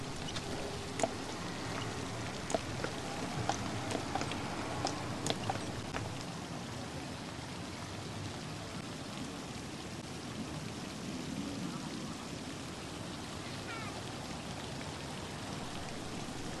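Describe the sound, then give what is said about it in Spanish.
Water rushes and splashes steadily in a dense, continuous wash of sound, with sharper droplet splatters breaking through early on, from a giant fountain in the centre of an ancient city. No voices are heard. “En el centro de esta ciudad antigua hay una fuente gigante donde fluye mucha agua.”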